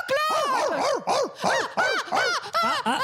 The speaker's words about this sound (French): ce, bruit de chien, ça me rappelle un, un poème.